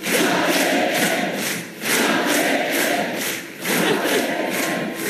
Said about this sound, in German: Und falls Sie nicht genau verstehen, was die Delegierten da rufen, dann hören Sie mal genau hin.